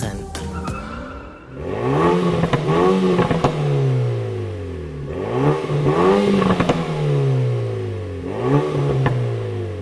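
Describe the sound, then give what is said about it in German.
A compact sports hatchback weighing 1,522 kg revs hard up and down several times in a row, loud, with sharp crackling exhaust pops and bangs as the revs drop, in a sportier driving mode. “Mir gefällt der Sound richtig gut, hat eben so leichtes Knallen, Pops und Bangs, wie die Amerikaner zu sagen pflegen.”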